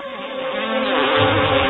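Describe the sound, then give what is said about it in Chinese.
A steady, dense buzz of bees, which feed on flower nectar, droning continuously, with layered wingbeat tones that grow slightly louder toward the end. No one speaks. “盘尾蜂鸟并不是花丛里唯一采蜜的生物，蜜蜂也是以花蜜为生，它们可不喜欢跟人家分享。”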